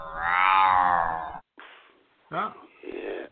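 A person imitates a cat with one long, drawn-out meow that rises and falls in pitch, loud, followed by brief breathy vocal noises and murmuring.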